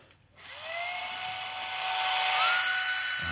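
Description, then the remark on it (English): A power woodworking tool whirs to life after a brief pause, its motor whine climbing in pitch and holding steady, loud, with no voices. “So, so what are you going to do with that table saw, that joiner, mm-hmm. the band saw, the planer, the drill press?”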